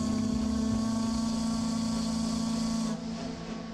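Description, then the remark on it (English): The whistle of the steamer Columbia, signalling the end of a voyage around the Pacific Northwest, blows in one long, loud, steady blast with a strong low tone and hissing steam, then cuts off abruptly near the end, leaving a quieter rumbling hiss. “That sound means the steamer Columbia has reached the end of another thrilling voyage around the Pacific Northwest.”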